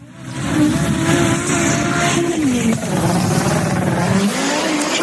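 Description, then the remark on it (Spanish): A sports car engine revs loudly, its pitch rising, dipping briefly, then climbing again in a sustained throaty growl with no talking over it. “Pero vamos, sí, eh, tengo coches y, y como coche, coche favorito, siempre como modelo de coche, el Porsche 911.”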